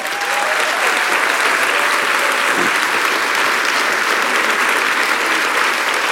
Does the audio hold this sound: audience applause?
yes